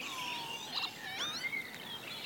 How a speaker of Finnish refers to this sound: Töyhtöhyyppä. Ja kiuru on siellä koko aika koko taustalla. Koko ajan taustalla, Peltojen soittorasia. Tämä töyhtöhyyppä lentää selvästi soidinta.